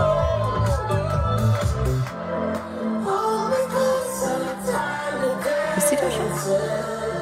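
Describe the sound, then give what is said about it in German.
A song played by a DJ plays loudly through big speakers, recorded in a phone video amid a crowd, with cheering and whooping voices mixed into the dense, slightly distorted music throughout. “Ja, muss dir vorstellen, er hat das natürlich da aufgelegt und das ist ein Handyvideo.”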